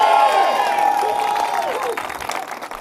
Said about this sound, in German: Musk wiederholt seine Aufforderung, diese Vision Wirklichkeit werden zu lassen. Diesmal lässt der Jubel nicht auf sich warten.